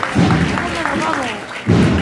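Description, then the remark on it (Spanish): A crowd applauds in a steady patter of clapping that swells near the start and again at the end as a religious procession float is lifted and sets off amid incense, while a man talks over it. “Y aplauso, vámonos que nos vamos.”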